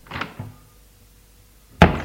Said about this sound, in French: La porte s'ouvre.